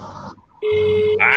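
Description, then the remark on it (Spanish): A telephone ringing tone comes through the line as a call connects during the live sports program Todo Deporte, one loud, steady electronic beep lasting about half a second, preceded by muffled line noise and ending in a sharp burst of static. “Ándale, mira, entró ahí la llamada.”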